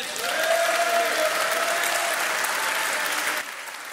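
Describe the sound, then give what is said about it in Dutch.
A large church audience applauds God loudly and steadily during a service, dense clapping filling the space with a faint sustained tone underneath, then the applause drops off sharply near the end. “Ze we God een enorm applaus geven?”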